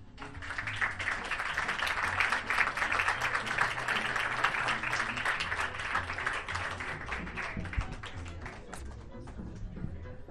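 Sustained audience applause, many hands clapping in a dense, steady crackle that stays loud for about ten seconds before easing slightly at the end.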